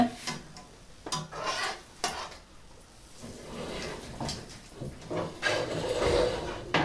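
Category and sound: food or drink, pancakes frying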